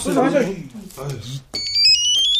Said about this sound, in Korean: 이 누구야? 이 심각한 마당에 무식하게 벨소리를 겁나게 높이 틀어놓은